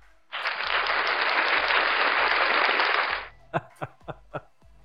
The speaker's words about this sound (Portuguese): Solta um aplauso